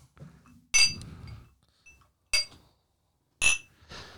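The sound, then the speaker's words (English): Three bright glass clinks, about a second apart, ringing sharply as whiskey glasses are tapped together in a toast, with faint low rustling between them. “All right, so let's go ahead and do some cheers in here.”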